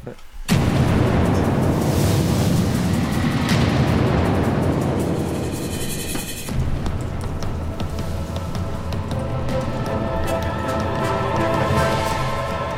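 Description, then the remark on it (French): A loud jingle for the Titi Global board-game segment bursts in after a brief pause, a dense, booming wall of sound with explosive, rumbling textures that shifts character about halfway through and stays forceful to the end. “Jingle.”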